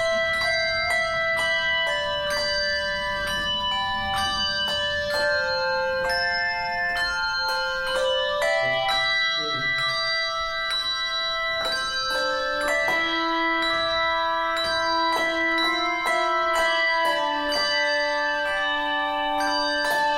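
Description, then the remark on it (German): A handbell choir at an evening rehearsal plays a slow melody, each struck note chiming clearly and decaying into overlapping tones, with several bells sounding together at times; no voices, just steady, resonant ringing throughout. “Der kaputte Handglockenchor beginnt an diesem Abend ein langes Probenwochenende.”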